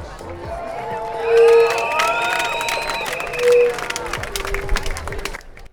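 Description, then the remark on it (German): A large crowd at a successful mass protest blockade against a provocation by the NPD Nazis last Saturday, a dense roar of many voices with shouts and cheers, and two loud whistle blasts rising above the noise before it cuts off abruptly. “Hier bereits im Hintergrund zu hören, gab es am vergangenen Samstag eine erfolgreiche Massenblockade gegen eine Provokation der Nazis von der NPD.”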